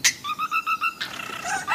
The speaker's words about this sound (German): Der Wiesenpieper. Ich höre den Wiesenpieper raus. Wiesenpieper, auch richtig.